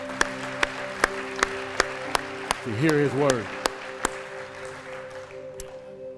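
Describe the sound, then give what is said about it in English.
A crowd claps in praise of God in a steady, even beat over sustained organ chords. A voice speaks briefly partway through, and the clapping stops after about four seconds while the music lingers. “And everybody said, Oh, come on, let's give God a hand clap of praise as we get ready”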